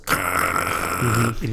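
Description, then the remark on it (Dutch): A voice imitates a low, droning musical hum like that heard in drone art installations, one steady buzzing tone held for about a second and a half, fairly loud, with a brief dip in pitch near the end. “Terwijl als ze ooit muziek kunst noemen, dan zijn dan meestal drone-installaties waar dat ze een oude micro hebben ingehangen en dit en dat.”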